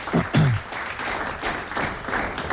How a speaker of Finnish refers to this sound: No tässä vaiheessa mä haluaisin täältä studion perukolta laittaa sulle taputukset tulemaan